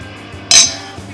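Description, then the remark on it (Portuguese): A single bright clink of glasses touching in a toast, ringing briefly with a high, thin tone before fading out over a quiet background. “A hora do brinde.”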